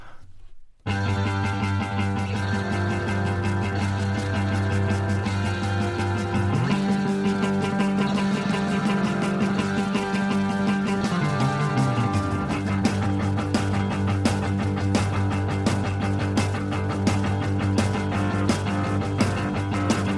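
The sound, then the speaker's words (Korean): A hard rock song plays loudly and steadily, with pounding drums, a thick sustained guitar and bass wall, and a held low note that bends upward midway before settling back. No one speaks. “음악 한 곡 듣고 와서 슈카와 계속 이야기하겠습니다.”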